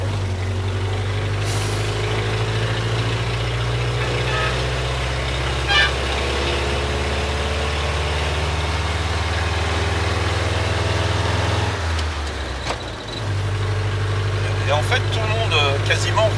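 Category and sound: vehicle, traffic jam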